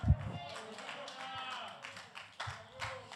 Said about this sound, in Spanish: Si ese aplauso es para mí, déselo con fuerza. Está bueno, pero si es para Dios, tiene artritis, déselo con fuerza, por favor.